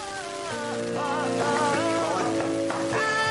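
A reggaeton song's intro plays with steady sustained synth chords and a wavering melodic line over them, holding a moderate, even volume with no voices.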